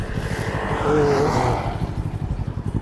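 A touring motorcycle's engine rumbles past, swelling to a peak around the first second before easing off into a steady low drone with rough wind noise.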